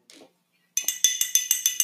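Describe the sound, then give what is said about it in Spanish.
A makeshift bell rung by clinking metal objects together: about nine quick, bright, high-pitched ringing strikes in a steady rhythm, each with a short shimmering tail, following a brief faint rustle. “Mejor, mejor la campana.”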